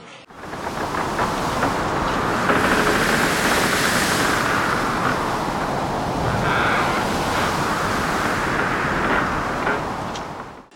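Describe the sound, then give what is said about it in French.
A wolf in a story, taking its deepest breath, blowing on a house to knock it down: a hard, roaring gust of wind-like blowing, loud and steady for about ten seconds, a broad rushing hiss that swells and wavers without any voices. “Il prit alors sa plu profonde respiration et souffla comme un fou.”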